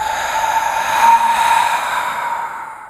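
A long, loud, breathy exhale after holding the breath in the upper chest during a breathing exercise, steady and airy for about two and a half seconds before tapering off. No one speaks.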